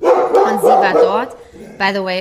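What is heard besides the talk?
dog barking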